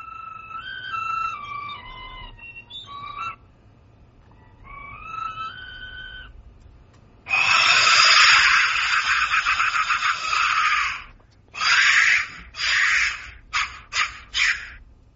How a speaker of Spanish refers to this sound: Sonido percutiendo el interior de uno de estos silbatos intactos de la muerte.